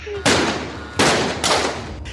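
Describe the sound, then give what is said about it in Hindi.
Three loud gunshots ring out at uneven intervals from government flat 8/2A in Gole Market, New Delhi, on 2 July at around 8 pm. Each is a sharp crack with a lingering echoing tail, the last two coming close together over a low background rumble. “कुछ घंटे पहले 2 जुलाई उन्नीस रात करीब आठ बजे नई दिल्ली के गोल मार्केट के सरकारी फ्लैट आठ बटा दो ए से गोलियां चलने की आवाज आती है”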